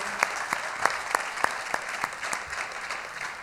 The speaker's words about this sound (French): J'aimerais ça qu'on puisse donner une main d'applaudissement à tous ces gens, chacun d'entre vous qui participait.